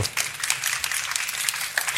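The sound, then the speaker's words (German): An audience applauds steadily for the full two seconds, a dense crackle of many hands clapping at once at moderate loudness, with no voices, welcoming Austrian author Dominik Barter onto the Blue Sofa of Deutschlandfunk Kultur. “Ein Applaus.”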